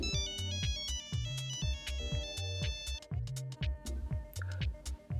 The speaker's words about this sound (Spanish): Ok, tenemos una llamada.